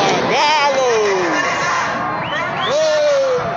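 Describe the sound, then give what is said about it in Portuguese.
A loud street demonstration crowd in Belo Horizonte roars continuously, with long rising and falling shouted calls soaring above the dense babble of many voices. “Você está ouvindo aí a mobilização em Belo Horizonte.”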